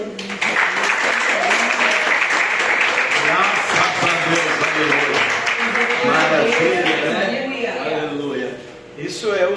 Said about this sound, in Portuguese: E eu agradeço a oportunidade, palmas assim, que louva o Senhor.